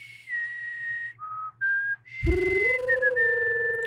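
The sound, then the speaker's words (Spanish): Someone whistles a short tune: a few clear, held notes dipping lower and rising back, then a louder stretch where the whistle carries on over a fuller, lower sustained sound. “De hecho, lo reconoce por el chiflido, por la canción.”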